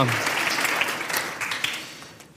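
An audience claps steadily, a dense wash of many hands with crisp scattered peaks, holding fairly even and then easing off slightly toward the end.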